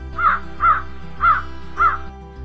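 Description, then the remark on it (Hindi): A crow, perched in a pigeon's basket near a kitchen, caws four times in two quick pairs, harsh, over a steady low background hum. “वहाँ के रसोई घर से आती हुए खाने की सुगंध से आकर्षित होकर वो कौवा उसी कबूतर की टोकरी में आ बैठा और उससे चिकनी चुपड़ी बातें करने लगा”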